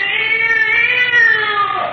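A cat named Gray Whiskers lets out a long, drawn-out meow that wavers and slides downward at the end, loud, with no talking, while chasing rats away.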